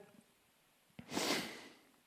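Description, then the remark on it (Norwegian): A single sniffle, a quick airy intake through the nose lasting about half a second, preceded by a faint click and otherwise surrounded by near silence. “å, Snufs.”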